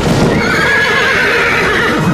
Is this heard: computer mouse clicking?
no